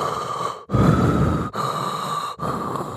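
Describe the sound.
A voice imitates the slow, heavy breathing of a person asleep: three long, loud breaths, each separated by a brief pause, with no other talking.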